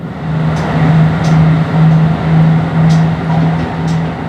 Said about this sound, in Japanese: このディーゼル車ならではの音聞こえますかこの音も旅の気分を盛り上げてくれて懐かしさがあっていいですよね